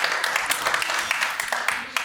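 An audience applauds steadily, a dense, even crackle of many hands clapping with a few sharper claps standing out, holding at a constant level for the whole two seconds.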